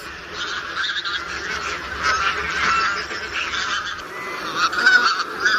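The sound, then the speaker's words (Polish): A mixed flock of bean geese and barnacle geese, passing through on migration and gathering to depart, honks in a dense, continuous clamour, many overlapping calls at once, fairly loud and steady throughout with no one talking. “rozwrzeszczały nam się teraz wspólnie i zbożowa, i bernikla, ale wszystkie te nasze gęsi gdzieś tutaj tak wędrują i przelatują, bo przecież obserwowaliśmy je na przelotach.”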